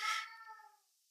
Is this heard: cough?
no